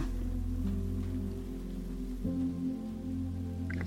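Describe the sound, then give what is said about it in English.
Steady, continuous rainfall with a soft hiss, layered over a low sustained musical drone that shifts pitch midway. No one speaks. “Listening to the sound of the rain let yourself be filled with ease, serenity, bliss, and deep, loving relaxation.”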